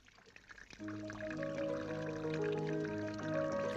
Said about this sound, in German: Hey, spielst hübsch auf deinem Wasserklavier, mein Freund.